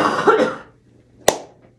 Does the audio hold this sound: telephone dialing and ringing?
no